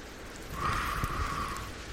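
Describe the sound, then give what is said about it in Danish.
A match is struck and flares with a soft, steady hiss to light a fire of dry small kindling and paper; faint crackling suggests the kindling starting to catch. Quiet and continuous, with no voices. “Og så har jeg altså også nogle tændstikker med.”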